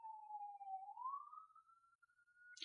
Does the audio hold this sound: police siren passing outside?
yes